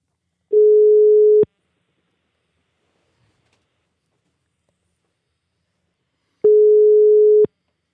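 A telephone ringback tone while dialing out to call a Belgian guest at home: two steady, fairly loud one-second beeps separated by about five seconds of silence, with no voices.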